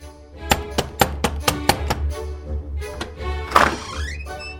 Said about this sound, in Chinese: 狮子满脸疑惑的在窗外观察了好一会儿，忽然敲门进来了。